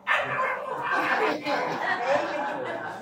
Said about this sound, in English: We got this little old dog that's all he can know how to do is bark.